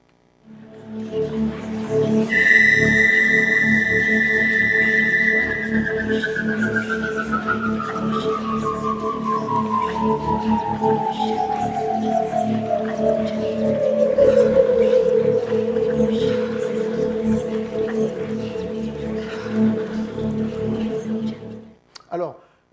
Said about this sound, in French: sons très aigus qui vont paraître tourner à très grande vitesse